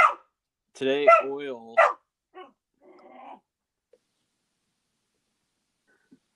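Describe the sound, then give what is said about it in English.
A new puppy lets out a short burst of high, yappy barks, followed by a few quieter growly grumbles that trail off into silence. “Well, like sorry about the dog.”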